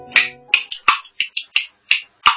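Kuaiban bamboo clappers play a brisk run of about eight bright, sharp clacks in a lively, slightly uneven rhythm, with a few quick doubled strokes and no voices, in a kuaibanshu clapper-storytelling performance of 'Raid on the White Tiger Regiment' (奇袭白虎团).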